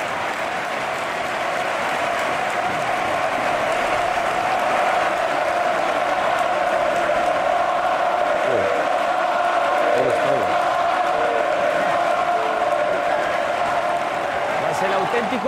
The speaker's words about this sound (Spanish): Ovación del Sadar.